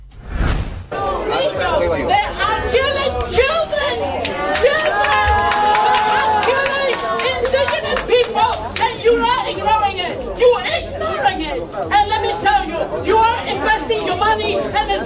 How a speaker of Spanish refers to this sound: Hubo un evento previo en, la, en el marco de la ONU de la Alianza del Pacífico. Y dos manifestantes le hicieron un scratch a Dina Boluarte. Escuchamos un poco de ese tumulto para después ir al mensaje de Boluarte en la ONU.